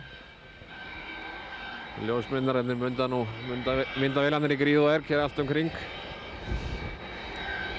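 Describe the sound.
A propeller airplane engine drones steadily as the plane passes a short distance away, a broad rumbling hum that swells slightly toward the end, while a man talks over it for several seconds.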